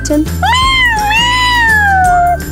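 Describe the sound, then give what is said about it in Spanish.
A cat lets out one long, drawn-out meow that rises and then slowly falls, loud, with a quiet steady musical bed underneath. “Échale unos maullidos a”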